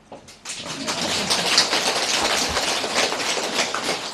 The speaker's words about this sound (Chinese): 你不鼓掌，我要叫你鼓掌啊！就用这种方法骗鼓掌最好的